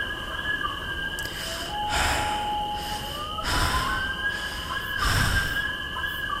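Heavy, labored breaths puff out close by in a slow, steady rhythm, three loud exhalations over a constant high-pitched whine of night insects. No one speaks.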